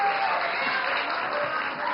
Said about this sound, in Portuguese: Eu quero aplausos. Mais alto. Mais aplausos.